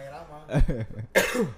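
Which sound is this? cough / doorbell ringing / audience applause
cough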